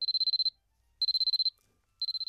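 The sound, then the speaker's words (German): An alarm clock rings in rapid high-pitched beeping bursts, three half-second runs of fast beeps separated by brief pauses, loud with no voices. “dann wisst ihr, ihr habt vergessen, den Wecker auszumachen.”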